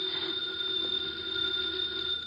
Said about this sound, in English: The phone is ringing. Let it ring. Hmm? Just as you say. It's the house phone